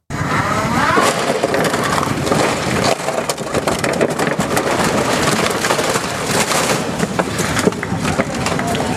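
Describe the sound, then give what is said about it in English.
A high electric motor whine from a big electric truck, like a wind-up toy car, rises and falls beneath loud, continuous crunching and splintering as the truck rolls over and crushes vehicles. “That's impressive as far as rolling over the vehicles, but that sound is like like a wind up car.”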